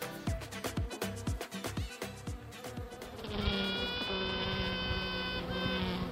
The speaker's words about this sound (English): The sound of a queen bee piping, a battle cry to any other queen bees in the hive to clear out.